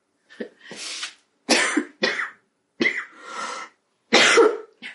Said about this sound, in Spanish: sigo tosiendo.